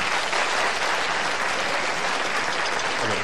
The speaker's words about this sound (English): How many of you folks here have never been to a TV studio before? Applaud if you've never been to one of these places.